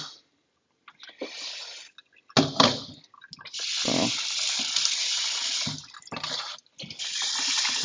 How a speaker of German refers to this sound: Kochtopf nochmal voller Wasser machen damit. Dann gießen wir die nochmal durch.